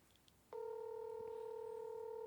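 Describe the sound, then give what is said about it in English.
While a phone call is being dialed, a keypad tone sounds after a brief quiet moment, a single steady two-pitched beep held clearly and evenly for nearly two seconds, with no talking. “Call him up.”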